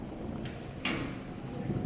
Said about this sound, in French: Le grincement aigu d'un portail, ponctuant une première salve grave du tonnerre, m'en empêche.